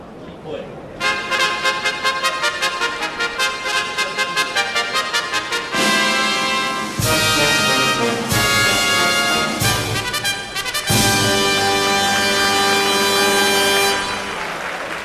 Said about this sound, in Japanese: 京成杯オータムハンデキャップ G3 重賞ファンファーレ中山競馬場に訪れた1万6700人のお客様から歓声と拍手が沸き起こりました。